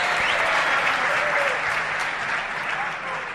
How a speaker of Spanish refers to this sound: Jo, qué bien que te reciban con estos aplausos, ¿no?